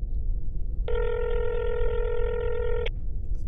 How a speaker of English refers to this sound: I'm going to call him. It's ringing.